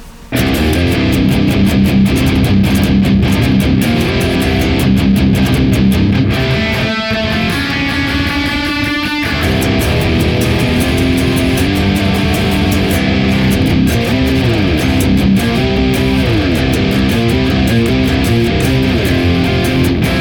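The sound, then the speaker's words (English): Heavy distorted electric guitar through a Neural DSP Archetype Nolly, Drone Green KT88 on the left and Hizumitas Marshall Vintage on the right, blended with a stereo pair of Thermi FA1 Uber 75 impulse responses, plays a dense, loud riff with thick sustained chords and a brief bending passage midway, dry with no voices. “SIR 200 running a stereo pair of the Thermi FA1 Uber 75s to blend with the Neural DSP Archetype Nolly running the Drone Green KT88 on the left and the Hizumitas Marshall Vintage on the right.”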